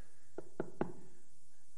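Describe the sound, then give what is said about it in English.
Three firm knocks on a wooden door of a home, evenly spaced and slightly accelerating, with no voices. “and suddenly there was a knock at the door.”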